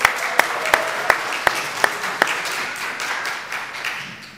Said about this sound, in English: The choir is back. Let's give a big round of applause for the choir.